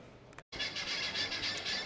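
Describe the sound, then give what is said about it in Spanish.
Dense, high-pitched chirping of birds at a hotel fills the air continuously, a busy chorus of several birds, with a brief silent gap near the start and no talking. “Esto que estáis escuchando son unas aves, que no sé qué tipo de aves son, que están en el hotel.”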